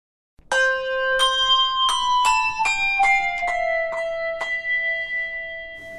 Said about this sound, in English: Thank you, house band …. Sounded good on the bells.